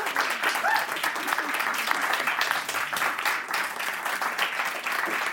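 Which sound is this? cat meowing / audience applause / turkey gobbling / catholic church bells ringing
audience applause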